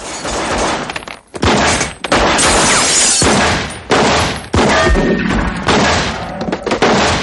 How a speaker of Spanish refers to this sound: Los impactos atraviesan las paredes. Un atacante entra, White le mata. Slee y White se incorporan disparando.